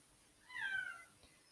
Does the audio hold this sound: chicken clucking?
no